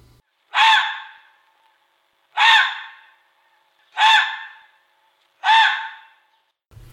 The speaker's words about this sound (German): Wer denkt, dass das gerade ein Vogel war, dem muss ich leider enttäuschen. Was da nämlich gebellt hat, das war ein Fuchs.